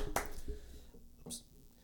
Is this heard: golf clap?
yes